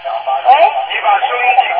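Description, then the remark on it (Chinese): A radio plays steadily for under two seconds during a phone call, causing an echo, its thin, tinny, narrow-band sound carrying a muffled voice-like murmur at a fairly even, moderate level. “喂， 你把收音机关掉。”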